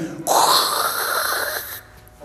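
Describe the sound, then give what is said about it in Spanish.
A voice makes a loud, steady breathy hiss for about a second and a half, imitating floodwater rushing away as it drains in the morning, then it fades out abruptly. “Y en la mañana vamos y ya había bajado el agua. Y en eso se empieza a escuchar así.”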